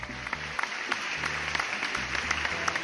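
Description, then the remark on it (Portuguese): A burst of applause sound effect: a dense, steady crackle of many hands clapping for about three seconds, with a low droning hum running underneath. “E eu achei, assim, uma coisa digna de, de palmas.”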